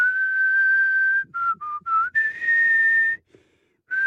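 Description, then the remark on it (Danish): Someone whistles a song melody, with a long held note, a few short stepping notes, then another sustained tone, a brief pause, and one more note starting. “Det er svært at fløjte, når man skal til at grine.”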